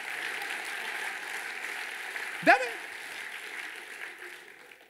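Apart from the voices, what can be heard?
audience clapping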